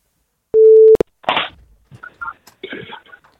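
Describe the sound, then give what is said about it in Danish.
A single loud, steady telephone ringing tone sounds briefly, then a sharp click as the line connects, followed by people speaking quietly over the phone. “jeg håbe, det er forkert nummer, jeg ringer til.”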